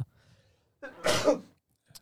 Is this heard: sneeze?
yes